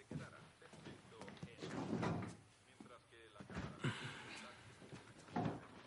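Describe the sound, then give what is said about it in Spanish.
A teenage boy pulls a door shut again with a few dull knocks and clatters, spread across the moment while voices talk over the sounds. “El chico, Ben, Vuelve a cerrar la puerta y se sienta en la mesa.”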